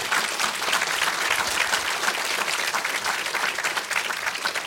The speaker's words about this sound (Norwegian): Han burde klappes for. Det er han som er den beste her. En klapp for han.